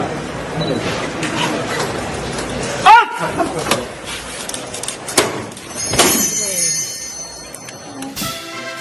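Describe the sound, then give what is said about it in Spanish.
Small bells on the paso (procession float) of La Pastora in Seville jingle and ring out in bright bursts as costaleros hoist the heavy float in its first lift, with a sharp knock and murmuring crowd voices around them. “¿Cómo suenan las campanillas aquí de, la pastora, eh? de, su paso en esa primera levantada”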